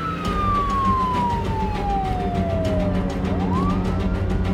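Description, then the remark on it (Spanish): A police car siren wails steadily as the car accelerates hard, its tone sliding slowly downward before sweeping back up, loud over a constant rumble of engine and road noise. “Salgo de inmediato a la ubicación de Martínez. Prendo la sirena y piso la aceleradora a fondo.”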